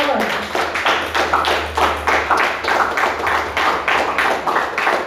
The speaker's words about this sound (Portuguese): Aplauda o Senhor.